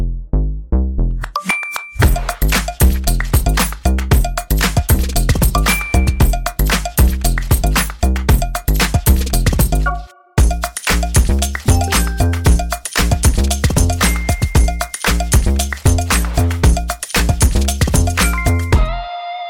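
A loud, upbeat musical jingle with bright bell-like chimes over a punchy, steady beat, briefly dropping out about halfway before picking right back up. No one speaks.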